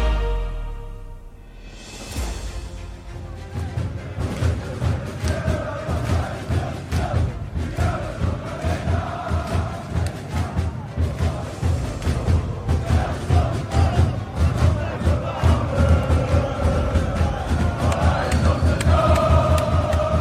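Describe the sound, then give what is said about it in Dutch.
Football supporters chant loudly in unison from section 127 of a stadium stand, a dense rhythmic roar of many voices with steady pulsing beats, sustained for the whole stretch without letting up. “Ja mannen, feestje, feestje bij vak 127.”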